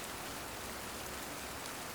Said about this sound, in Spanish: Afuera sucedía la lluvia que dialogaba con la tierra y las flores de mi jardín.